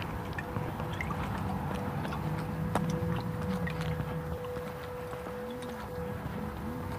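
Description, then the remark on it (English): A leaf blower drones steadily throughout in a neighborhood of multifamily buildings, its motor hum faint and diffuse, echoing around the neighborhood, with no voices over it. “Somebody's got a leaf blower going.”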